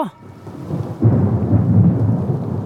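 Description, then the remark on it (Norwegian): A deep, rolling rumble of thunder outside swells up and sustains, broad, with a steady wash of rain noise beneath it and no voices. “Det tordner ute.”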